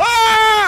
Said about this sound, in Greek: Αυτός είναι ο σκύλος τον οποίον υιοθετήσαμε. Τα! Κα! Τα! Και ο οποίος ενίοτε είναι λίγο φασαριόζος αλλά είναι η πρώτη φορά που παρεμβαίνει σε συνέντευξη τύπου.